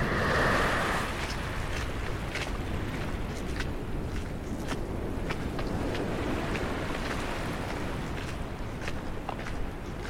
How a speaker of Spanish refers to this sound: La arena se siente fría en tus pies y las olas producen un sonido que hipnotiza.